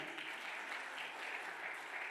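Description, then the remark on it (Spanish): An audience applauds loudly for the Lord, a dense, steady wash of many hands clapping with no pauses and no voices over it. “Contale un aplauso fuerte al Señor.”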